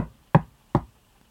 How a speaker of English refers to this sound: knocked at Sean's door. No reply. And he knocked again